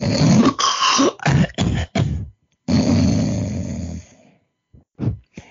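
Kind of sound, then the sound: human body sound, man snoring loudly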